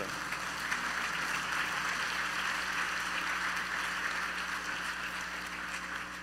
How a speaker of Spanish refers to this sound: De un aplauso al Señor.